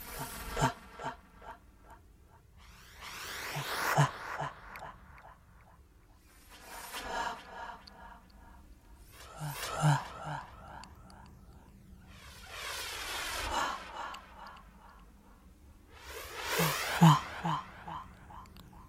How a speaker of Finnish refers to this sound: siellä on tehoste himmeli. Ja, ja tota, se on tehty ihmisellä, ihmisäänellä.